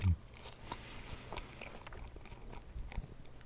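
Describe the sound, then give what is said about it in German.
A crisp bite at the start followed by several seconds of wet, crunchy chewing, with irregular small clicks and smacks and no talking. “Und ich beiße jetzt nochmal ab.”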